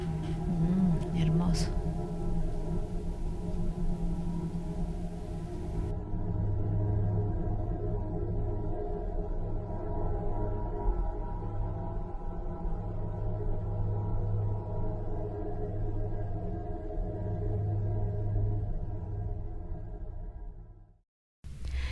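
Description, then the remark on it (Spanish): A space recording of the Moon: an eerie, steady low drone with layered humming tones and slow swells, continuous for about twenty seconds before cutting off abruptly, with a brief murmur near the start. “Este es el sonido de la luna.”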